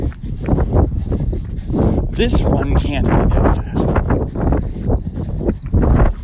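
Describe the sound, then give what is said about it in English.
A ridden horse named Reagan trots at a motivated pace close to nine minutes per mile, with steady, rhythmic hoofbeats, while a person talks over the clopping throughout, with some wind and outdoor noise in the background. “So, yeah, Reagan's motivated trot is very close to nine minutes per mile.”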